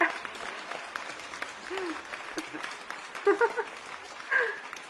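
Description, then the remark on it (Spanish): An applause sound effect played on request to welcome a guest: a steady wash of crowd applause, many hands clapping in a dense, crackling texture that holds for about five seconds, with a few brief voice-like bursts rising near the end. “Sí, sí, sí, pónganme ruido de aplauso, por favor.”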